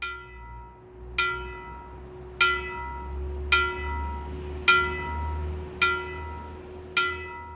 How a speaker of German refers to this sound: So wie die älteste Bronzegussglocke Bayerns. Sie hängt im Turm der Pfarrkirche Mariä Namen von Iggensbach im Landkreis Deggendorf, ist 45 Zentimeter hoch, auf das Jahr 1144 datiert und wird nur noch als Totenglöckchen geläutet, von Hand.